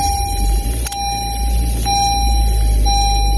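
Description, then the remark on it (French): A car's open-door warning sounds: a steady high electronic tone with soft ticks about once a second, over a low idling-engine rumble. No one speaks. “Ben, c'est ma voiture, la porte de ma voiture.”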